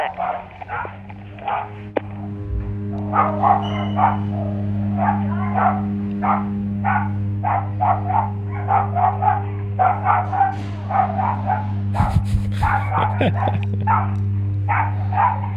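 Several dogs bark and yip excitedly at the door as someone arrives, in rapid, overlapping bursts, loud, over a steady low hum, with a brief sharp clatter near the end.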